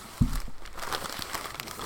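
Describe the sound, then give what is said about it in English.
Stiff fabric being handled: a pair of Carhartt waxed canvas pants, one side waxed and one side untreated. A soft thump followed by continuous crinkling and rustling with faint crackles, fairly quiet and steady throughout. “Yeah, so this is a pair of Carhartt pants. One side's been waxed, one side's untreated.”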